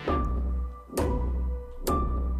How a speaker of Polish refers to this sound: A potem znowu, w drugim pokoju słychać w akordzie następną maszynę, która napierdala. Wiercą, stukają, słychać młotem, który ktoś napierdala jeszcze raz i wbija, i wbija, i wbija.